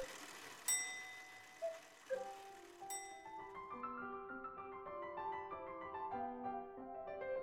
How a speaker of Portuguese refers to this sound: O ouvido da dona Inácia não ouvia a voz da divainha sussurrando ao doce embalo das batidas do relógio.